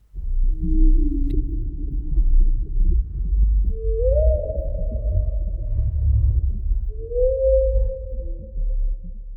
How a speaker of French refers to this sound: Le chant de baleine est un son lent, grave et profond. Il est sujet de fantasmes d'un langage qu'on ne traduit pas.